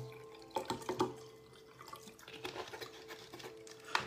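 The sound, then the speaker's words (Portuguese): Water is poured into a glass in a few quiet, splashing bursts with small drips and clinks between them, with no one speaking. “Agora deixa eu encher meu copo, porque senão só vou fluidificar vidro. Preciso colocar água no vidro aqui.”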